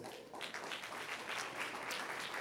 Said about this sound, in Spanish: Denle un aplauso fuerte, Señor.